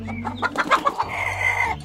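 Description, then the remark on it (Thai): A rooster clucks in a quick series of short calls, with one longer drawn-out note near the end, set against a low steady background hum. “เขาได้ทุ่มเทเอาใจใส่ และให้ความสนใจแก่ลูกไก่ตัวนี้เป็นอย่างมากและได้เลี้ยงดูลูกไก่นี้ จนค่อย ๆ เจริญเติบโตเป็นไก่ตัวผู้ที่แสนจะงดงาม”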